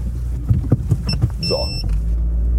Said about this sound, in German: packe ich eben rückwärts ein mit Einparkhilfe, weil ich ja unfähig bin, Auto zu fahren.